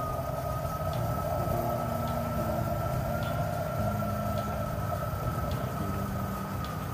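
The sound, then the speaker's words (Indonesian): A steady, dense rumble of heavy engine noise from road traffic, with a bus droning and a sustained tonal hum over the constant roar. “Sebentar, oh ya bis.”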